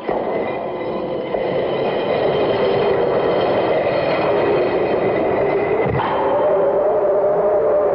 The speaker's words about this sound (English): This is the last step, except one. The step to open the great stone. Watch, Father.